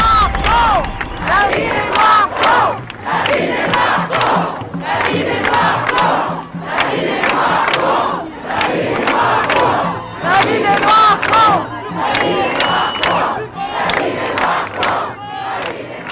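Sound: protest crowd chanting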